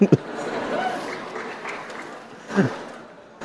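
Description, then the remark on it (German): Sparse, muted clapping from an audience at a book fair, a low wash of crowd noise with a few sharper claps standing out at the start, middle and end. “Gut, äh, verhaltener Applaus.”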